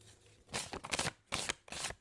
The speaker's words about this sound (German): Und dabei habe ich ihn zerrissen. Mhm. Weißt du, das hört sich dann wieder an wie Geld. Wow. Ja. Ich habe es komplett verkackt und den Fünfer zerrissen.